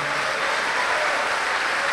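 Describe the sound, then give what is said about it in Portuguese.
An audience in Rio de Janeiro applauds steadily for a preached word, a dense and continuous wash of many hands clapping at an even level throughout, with no voices standing out. “Desocupe as tuas mãos e dê a melhor salva de palmas para esta palavra.”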